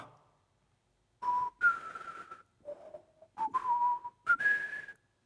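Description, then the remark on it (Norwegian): A solo whistled leitmotif melody, the theme of Siegfried's sword: several clear phrases with short pauses between them, the pitch dipping low in the middle before climbing to a higher, sustained final note. No talking. “Sigfrids attributt, sverdet, har et beslektet tema.”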